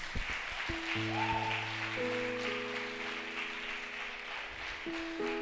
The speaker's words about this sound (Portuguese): Eu queria que você desse uma salva de palmas para essas pessoas que vieram pela primeira vez.